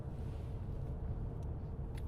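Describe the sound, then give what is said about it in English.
A steady, low rumble from inside a car, with a constant muffled drone and no voices, plus a couple of faint clicks near the end. “I hope and pray you've enjoyed this little talk today from the car.”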